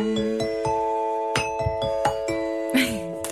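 A ding-dong-dang chime rings out clearly, its bright tones sustaining and overlapping for several seconds, with a few soft clicks and a brief whooshing swell near the end.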